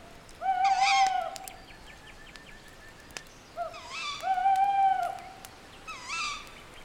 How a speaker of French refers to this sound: Chaque son est plus présent le vent au loin, le bruissement des feuilles, le ululement du hibou.